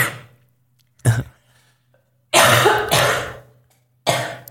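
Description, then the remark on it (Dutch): A burst of harsh, raspy coughing: a short cough, then two longer rough bursts in a row, and one more cough at the end. The coughs are loud, with no talking in between. “Gezondheid.”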